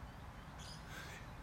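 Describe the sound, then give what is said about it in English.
A bird calls twice in quick succession, harsh, over a steady low rumble of background noise, with no one speaking. “I enjoy listening to the birds and the traffic as I do my podcast.”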